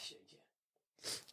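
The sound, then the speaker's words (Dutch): A single loud sneeze bursts out after a brief silence, preceded by a moment of vocal noise. “Gezondheid hoort erbij, hè?”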